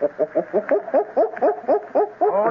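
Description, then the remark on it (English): A person imitates a gorilla's bark with a rapid, steady run of about ten short, throaty hoots, loud, with no other talking. “But we must do more than look like gorillas, amigos. We must sound like them. Their barking is like this.”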